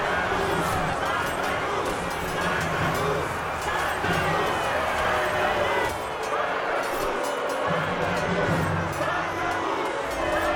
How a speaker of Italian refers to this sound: Il sangue scorre a fiumi e la gente si esalta, euforica, invocano il nome del proprio eroe.